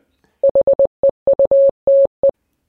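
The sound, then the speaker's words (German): Morse code beeps spelling the word "heute" in a news intro, in a clean, steady mid-pitched tone, a quick run of short dits with a few longer dahs, clear with no voices over them. “Das hört man nicht so gut, aber wenn man einmal dieses gemorste heute kennt, hier das hier,”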